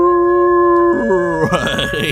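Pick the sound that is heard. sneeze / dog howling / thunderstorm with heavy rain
dog howling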